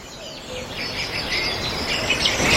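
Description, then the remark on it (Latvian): Birds chirp and twitter steadily in the background, their bright, overlapping calls forming a continuous chorus that grows slightly louder toward the end, with no voices present. “Tā lai, lai paskan mazliet putni fonā.”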